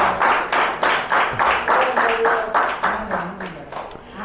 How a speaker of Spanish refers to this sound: Dele ese aplauso fuerte al Señor, aleluya.